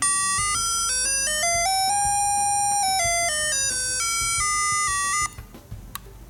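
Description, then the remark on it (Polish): A bright, buzzy electronic instrument tone steps up through semitones one note at a time as a finger slides along its roughly 7 to 8 cm strip, then steps back down, holding steady and loud before cutting off, leaving faint background noise. “I jak przesuwam z jednej końca do drugiego, jest co pół tonu, ale też z tyłu jest taki przycisk, właśnie ten do wyboru skali.”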